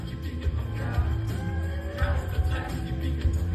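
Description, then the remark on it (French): A live concert at the Olympia, heard from the back of the hall: two singers performing a song together, boomy, muffled music with heavy bass and a smeared, reverberant mix, crowd noise and occasional shouts blending in throughout. “Alors, c'est le son de la salle.”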